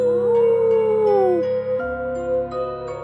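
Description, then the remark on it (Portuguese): A wolf lets out a long, rising-and-falling howl lasting over a second, loud, followed by quieter wavering tones over a steady musical backdrop. “O malvado lobo uiva.”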